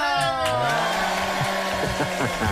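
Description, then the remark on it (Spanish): A quiz-show buzzer sounds: a loud, harsh, harmonic-rich drone that dips slightly in pitch at the start, then holds steady for over two seconds over a rushing hiss, with faint voices beneath. “vamos a pedir el bar porque ha sonado sobre el gong.”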